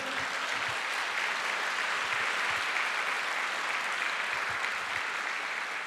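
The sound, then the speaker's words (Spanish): An audience at a church service claps steadily for the Lord in sustained, dense applause, a continuous crackle of many hands with no break, holding an even loudness throughout. “Quiero que le dé un fuerte aplauso al Señor.”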